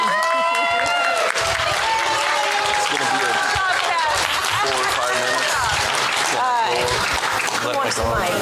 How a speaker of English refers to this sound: Okay, now we give her a big hooray and a clap.